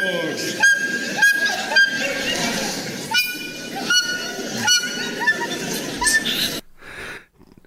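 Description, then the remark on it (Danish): A woman plays a flute with her vagina on the talent show Der Supertalent 2024: shrill, squeaky, honking notes in a steady run of short bursts, loud, breaking off abruptly near the end into a faint wavering tail. “Det er lyden af en kvinde, der spiller fløjte med sin skede i øh, talentshowet Der Supertalent 2024.”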